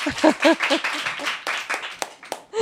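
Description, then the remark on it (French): Laughing voices at the start give way to a short burst of hand clapping, ending in a few sharp, separate claps. The applause is moderate in loudness. “Vas-y, on applaudit.”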